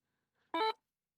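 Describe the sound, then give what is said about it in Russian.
A single short electronic confirmation beep from a braille display as it connects to a phone, a bright multi-tone chirp lasting under a quarter second, clear, with silence around it. “Это звуковой сигнал, который сообщает вам о том, что дисплей подключен.”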